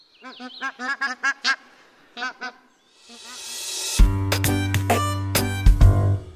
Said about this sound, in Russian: А еще гуси гогочут, когда летят. Вот так вот.